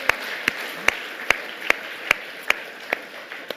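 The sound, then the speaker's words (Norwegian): Applause in a steady, even rhythm: about nine sharp claps at a regular pace over a low background hiss, with no one talking. The applause thanks the worship singers at a church service in Misjonskirken. “Kan vi ikke gi dem en god applaus?”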